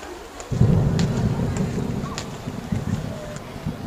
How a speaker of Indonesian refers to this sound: Eh, hujan.